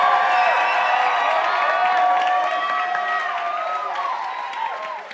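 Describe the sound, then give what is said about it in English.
A crowd applauds and cheers for the campus pastors and interns, with dense clapping under shrill whoops and voices that waver in pitch, staying loud for several seconds before slowly tapering off. “Can I just say, can, I, can we just give a round of applause to all your campus pastors and interns?”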